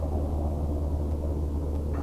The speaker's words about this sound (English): Hope you can hear me over this helicopter going by, but see if I can get it in the shot here.